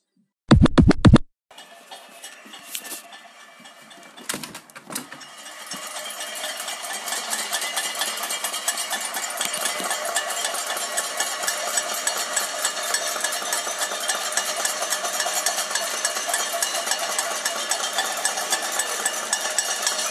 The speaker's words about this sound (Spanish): las 8 ha habido aplausos y son las 9 cacerolada. ¿Por qué? Ni puta idea.